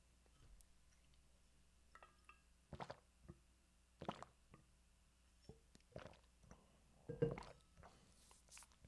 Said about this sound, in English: Sorry, I was drinking water